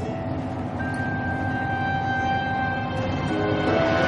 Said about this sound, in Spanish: La mujer y Juan viajan en un autobús.